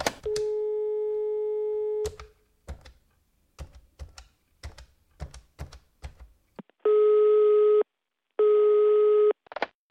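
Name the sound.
telephone line tone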